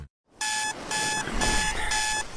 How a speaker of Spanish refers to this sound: Imagínate tus mañanas, pero sin el ruido del despertador.